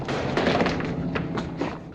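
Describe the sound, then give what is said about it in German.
Leonardo stumbles over his seven-string fiddle: a cluster of dull thuds and knocks with a faint wooden clatter, several irregular bumps over two seconds, fairly loud, with no talking. “Leonardo stolpert über seine siebenseitige Fiedel.”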